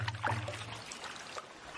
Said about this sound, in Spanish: el canoero diestro en guiar la embarcación hacia un lugar más profundo del río, en busca del agua más pura, del cauce guiado por el reflejo de la luna sobre el cristal de las aguas.